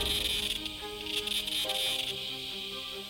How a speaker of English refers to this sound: It can be something melodic and captivating, when millions of cicadas click in the forest, it resembles the sound of a jet plane or a circular saw working.